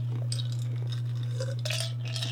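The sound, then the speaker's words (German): Ice cubes clink against a glass several times in quick, irregular bursts, moderately loud, over a steady low hum with no voices. “Ist nur Eiswürfel.”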